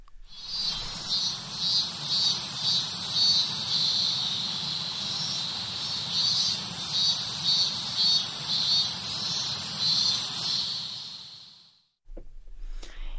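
Outdoor ambience at Sensoji temple in Tokyo, dominated by a loud, shrill chorus of buzzing insects pulsing steadily over a low background hum, with no talking, before cutting off near the end.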